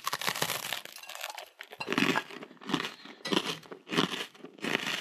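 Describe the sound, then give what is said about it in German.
Crunching of someone biting into and chewing a crisp biscuit, with a steady rhythm of loud, crackly chews about every second and no talking. “Keks oder Brot oder irgendwas aus Weizen. Und dann kommt ihr zurück. Genau. Und dann ähm, beißen wir da alle mal zusammen rein”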